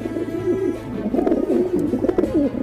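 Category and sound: bird, dove cooing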